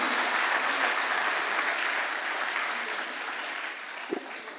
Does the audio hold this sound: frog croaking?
no